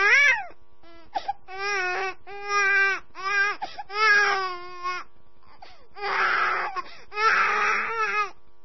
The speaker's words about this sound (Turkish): hiç kuşkum yok ki hemen anladınız. Bir bebek ağlaması. Ama neden anladığınızı hiç düşündünüz mü?